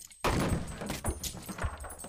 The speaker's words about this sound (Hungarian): A falap nagyot recsent, ahogy Henton teste neki csapódott.